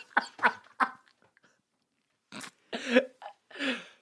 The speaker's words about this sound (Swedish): Hostar du mycket? Hostar ju hela tiden hör du väl? Okej.